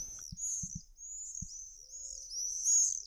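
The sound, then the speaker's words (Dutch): Shrill, high-pitched screaming calls of common swifts run almost without pause, several birds overlapping in long piercing trills, with a few soft low thumps underneath. “En dan maken ze ook een heel typisch geluid. Dat gieren, wat ik al noemde, eh, hoort daarbij.”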